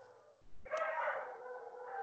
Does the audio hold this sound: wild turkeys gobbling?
no